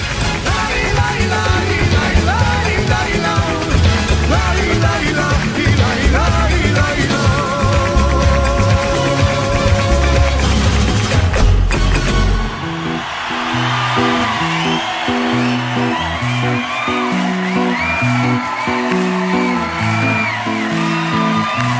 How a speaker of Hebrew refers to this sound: מה, שומעים שזה מחיאות כפיים ישראליות? איך לא?